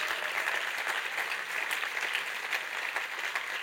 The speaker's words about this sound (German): Geben wir Ihnen einen riesen Applaus auf der Bühne.